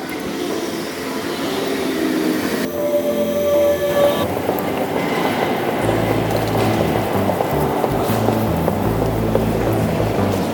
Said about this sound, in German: Gleis 1 Einfahrt RB hoch.